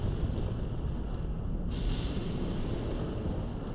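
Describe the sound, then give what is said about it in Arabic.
A deep, continuous rumble of thunder rolls on for several seconds, loud and heavy in the low end, with a brighter crackling wash joining partway through. No voices are heard. “تستيقظ على صوت الرعد تنتبه أن أثناء نومك تسلل الإعصار نحوك”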